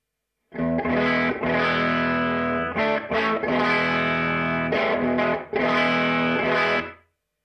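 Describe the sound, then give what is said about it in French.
Distorted electric guitar chords ring out loud through an amp-modelling pedal emulating a Fender Tweed amp, set to a programmed humbucker bridge pickup preset, played in a few sustained strummed bursts with brief gaps between them. “Et si j'appuie sur le son qui s'appelle Humbucker Bridge Pickup de chez Tim Pierce, ça devrait changer le son”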